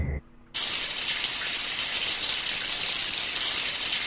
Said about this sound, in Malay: Dalam tandas dalam tandas bunyi paip hujan, air mencurah-curah turun.